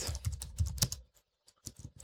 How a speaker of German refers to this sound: Während der Alex wieder laut tippt.